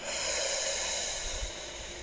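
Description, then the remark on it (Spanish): A long, steady exhale after a deep breath in a guided meditation, breathy with an airy hiss, easing slightly toward the end. No one speaks. “Exhala.”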